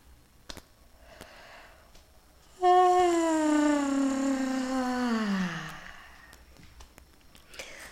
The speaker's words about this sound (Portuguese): O bocejo é uma descarga do corpo. É uma descarga que vem do sistema nervoso autônomo.